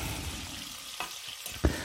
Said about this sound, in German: Jetzt haben alle Stücke mal die Pfannen und die, die Bratseite gesehen.